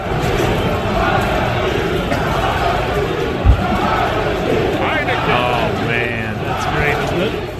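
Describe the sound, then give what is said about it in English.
A large stadium crowd roars and cheers in a steady, dense wash of voices, with a few higher shouts and whistles rising out of the din near the end and a single dull thump midway. “Listen to the crowd.”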